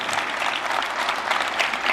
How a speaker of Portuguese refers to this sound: Será que você pode aplaudir a, a Jesus por a vida desse casal? Que alegria! Que honra!